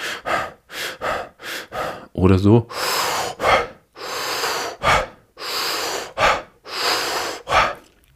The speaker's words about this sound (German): Es geht darum, dass wenn wir atmen, dass es einen Unterschied macht, ob ich hyperventiliere, also sehr schnell, es kann tief oder flach sein, atme, es hört sich dann so an